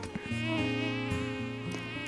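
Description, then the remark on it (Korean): A mosquito's thin, continuous buzzing whine hovers for about two seconds, steady and fairly prominent, its pitch wavering slightly as it moves, with no voices. “조그만 모기 한 마리만 들어와도 아 어떡해 잡아야 되는데 아 모기 싫어 호들갑을 떨었습니다.”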